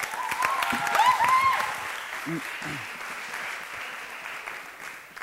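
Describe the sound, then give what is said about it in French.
An audience applauds to encourage a man, a steady, dense patter of clapping that swells in the first couple of seconds and then gradually thins out, with a brief murmured voice and a few high cheers over it. “Merci de, de l'encourager de l'applaudir.”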